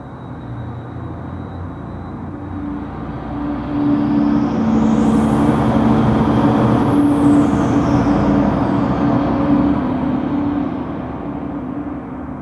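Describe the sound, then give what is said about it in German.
Steady road traffic rumbles throughout, swelling louder for several seconds as cars pass, with a faint high whine sweeping through, then easing back to a broad, continuous wash of noise, blended with a crowd that is hard to tell apart from the traffic. “And um, often it was very, what I found very interesting, it was quite unclear what was traffic and what was crowd.”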